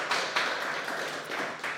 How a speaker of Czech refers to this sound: takže díky, já takhle jakože zatleskám.